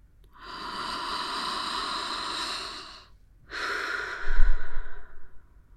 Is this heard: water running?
no